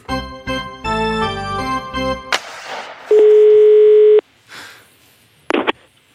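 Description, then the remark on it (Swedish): A single steady telephone ringing tone of an outgoing call sounds loudly for about a second, after a burst of music fades out, followed by a brief clatter. “Ja, det var SHL-podden som ringer här va?”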